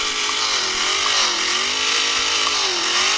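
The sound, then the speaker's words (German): A steady, buzzing simulated car engine drone played by an app idles continuously, as for a car standing at a traffic light, with a slowly wavering pitch, loud and unbroken throughout. “Wenn man langsamer wird, die Scheibe, dann wird es wieder runter und äh, vor der Ampel oder so macht er dann Standgeräusche. Dann blubbert er so vor sich hin, ja, genau.”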